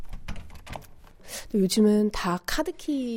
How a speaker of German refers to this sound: Mit einem alten Schlüssel öffnet sie die Tür und betritt ein sauberes Zimmer mit einem großen Fenster.